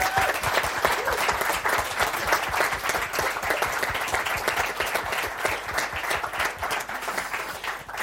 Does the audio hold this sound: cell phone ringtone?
no